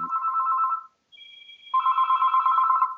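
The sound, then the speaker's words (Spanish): An electronic telephone ring tone sounds twice during an outgoing call, a steady buzzing burst, a short pause, then a brighter higher tone leading into another long burst. Clear, with no voices. “Voy a llamar a este hombre a ver, a ver qué, podemos sacar.”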